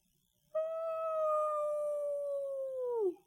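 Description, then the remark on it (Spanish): A single low, hollow howl blown through the slit between the two thumbs into cupped hands, held steady for about two and a half seconds before its pitch sags and cuts off. Clear, with no talking. “Tomé una profunda bocanada de aire Junté mis manos y proferí un aullido grave soplando en la raja entre los dos pulgares y dentro del hueco de la mano.”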